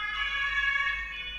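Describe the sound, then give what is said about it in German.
A steady, sustained emergency siren wails at moderate loudness as many fire engines drive past outside, its tone holding fairly constant with a low rumble of traffic underneath and no voices. “Mach mal ganz kurz, bis die 500 Feuerwehrautos vorbeigefahren sind.”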